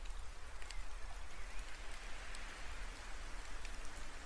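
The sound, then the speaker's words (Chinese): Steady rain pours down in a continuous, even hiss, with occasional sharper patters of drops hitting a surface. No voices, just the unbroken wash of rainfall at a constant moderate level. “啊，下雨天捧着热茶，还真是温暖啊。”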